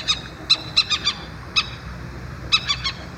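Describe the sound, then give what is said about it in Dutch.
Little owl alarm calls, given when the young are in danger: sharp, high-pitched yelps repeated in quick bursts of two or three, clear over a faint outdoor background. “Eh, als de jongen in gevaar zijn, dan hoor je vaak dit.”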